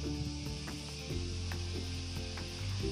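A steady, hissing outdoor ambience of crickets chirping in a continuous chorus, with soft wind blowing underneath and a few faint low thumps; no one speaks. Recorded outdoors with a view of Mount Tangkuban Perahu and the Lembang fault.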